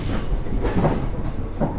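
A steady, low rumble of a Mizushima Rinkai Railway train rolling along the tracks from Kurashiki toward Mitsubishi Jiko-mae, heard from inside the carriage, with faint rhythmic clatter and a constant hum, no voices.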